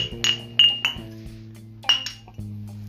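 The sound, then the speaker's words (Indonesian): Glasses clink together in a toast, several bright ringing taps in quick succession and another pair a moment later, clear with a lingering chime and no talking. “cheers dulu cheers dulu cheers dulu oke”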